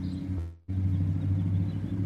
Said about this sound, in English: Very loud truck. Very big American truck. Pickup truck. Can you see it go by? right? Americans like their big engines.